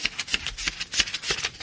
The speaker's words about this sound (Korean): 예, 이게 지금 지폐 세는 소리입니다. 네. 여러분들, 요거 구경 좀 자주 하시나요? 지폐 세는 소리, 오늘 보물소리입니다. 그야말로 보물소리네요.